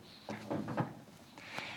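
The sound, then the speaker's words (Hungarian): A chair is shifted and set down by a speaker during a talk, making a short burst of scraping and bumping followed by a couple of lighter knocks, at a modest volume. “Most eltüntetem ezt a széket”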